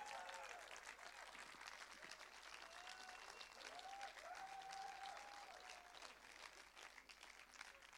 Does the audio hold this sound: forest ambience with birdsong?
no